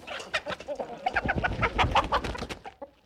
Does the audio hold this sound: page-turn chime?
no